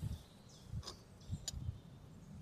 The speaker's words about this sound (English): You can hear the birds tweeting.